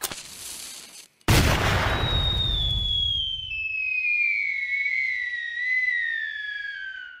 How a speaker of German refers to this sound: Ja, ich lade meine Kanone für die Heimreise. Adios und Feuer!